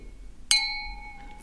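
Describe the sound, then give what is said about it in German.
Two wine glasses clink together once in a toast before the first sip of wine, a bright ringing chime that lingers and slowly fades, with a faint second touch near the end. “Jetzt aber mal ein Schlückchen vorher müssen wir natürlich jetzt mal anstoßen.”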